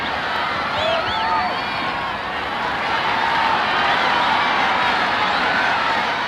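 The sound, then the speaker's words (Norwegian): A full stadium crowd in the stands cheering and shouting for their country's athlete to cross the finish line first, a dense continuous roar of many voices with occasional whistles rising above it, steady and loud throughout. “Ja, dette er lyden av en full tribune der folk hoier og heier på sitt land, sin favoritt, og krysser fingrene og tær for at eh, deres idrettsstjerne skal komme seg først over mål.”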